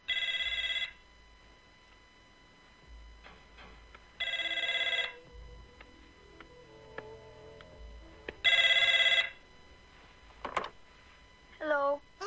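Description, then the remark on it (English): An old-fashioned telephone bell rings three times, each a loud, rattling burst about a second long, spaced a few seconds apart with quiet gaps and a few faint sounds between. “If you got to make a phone call, uh, we'll be right back after uh, after we take this call.”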